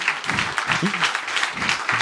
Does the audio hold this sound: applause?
yes